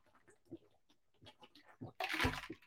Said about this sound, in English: I'm not even five minutes in, and I'm already chugging my water. Can you tell? It's been a day.